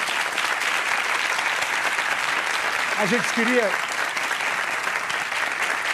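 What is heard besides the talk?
audience applause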